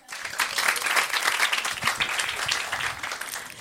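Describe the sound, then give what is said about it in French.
An audience applauds to show they have seen Fight Club, a dense wash of many hands clapping steadily for a few seconds at an even, fairly loud level throughout, with no voices standing out. “Oh, Est-ce que tout le monde a vu Fight Club euh, par applaudissement dans la salle”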